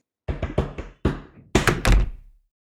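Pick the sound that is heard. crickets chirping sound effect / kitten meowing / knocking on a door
knocking on a door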